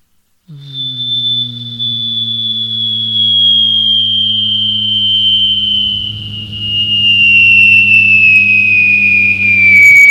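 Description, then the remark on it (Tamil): A voice imitates a jet plane landing: a steady low engine drone beneath a high whistling whine that slowly drops in pitch, held loud for about ten seconds. “அதே ஃப்ளைட்டு இப்போ லேண்டிங் ஆனால் எப்படி இருக்கும் அப்படின்னு ஒரு சின்ன கற்பனை”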